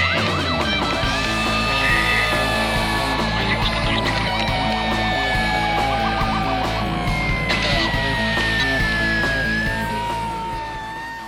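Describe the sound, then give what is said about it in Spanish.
Loud emergency vehicle sirens wail continuously from an emergency truck heading to a call, their rising and falling tones overlapping over a heavy rumbling engine, with no talking. “Se escuchaban las sirenas, mi corazón palpitaba, emocionaba, no sabía qué iba a hacer, no sabía qué estaba haciendo arriba de un camión.”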